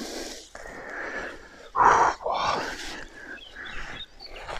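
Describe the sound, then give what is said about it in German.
A woolly rhinoceros snorting and wheezing heavily, a series of harsh, breathy huffs with one loud burst near the middle, no talking. “Das sind wirklich gefährliche Tiere. Und die sehen noch mal größer und krasser aus als heutige Nashörner durch dieses zottelige Fell.”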